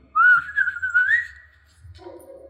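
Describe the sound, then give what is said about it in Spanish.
A person whistles a loud, wavering, slightly off-key tune, imitating how a soldier whistled, that slides upward for about a second and a half, then fades into quieter, muffled background sounds. “Caminó este soldado de 10.000 kilómetros silbando su desentonado silbido”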